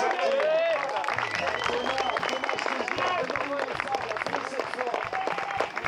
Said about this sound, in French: on se réveille un petit peu là, s'il vous plaît, on les applaudit pour les 40 dernières secondes.